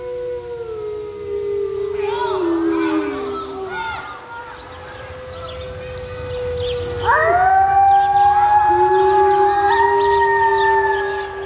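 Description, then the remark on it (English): Several wolves howl together in long, rising and falling tones that overlap into a chorus, fairly loud and sustained throughout, with a second wave of higher howls joining partway through. “that is our wolves.”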